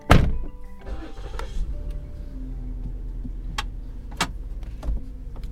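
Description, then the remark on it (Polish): A car door thunks shut, followed by a few small clicks and ticks inside the cabin as a steady engine hum settles in underneath, no one speaking, as people get into a car to drive around Marco Island. “Wsiadamy zatem do samochodu i jedziemy rozejrzeć się po Marco Island.”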